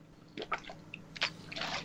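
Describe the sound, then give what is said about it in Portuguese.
Someone takes a sip of water: a few short, wet slurping and swallowing sounds with small gulps, fairly quiet and with no talking. “Pausa pra água coisa a garganta, gente, desculpa.”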